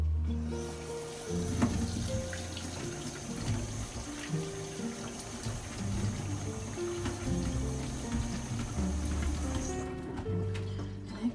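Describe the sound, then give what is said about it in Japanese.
Cucumbers are rinsed under a running kitchen tap, a steady rush of water with light splashing and handling, until the flow shuts off near the end. “はいということでちょっと今からきゅうり洗う。”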